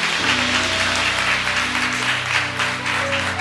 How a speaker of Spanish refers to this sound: Pero ese aplauso está muy, muy, muy flojito, muy flojito.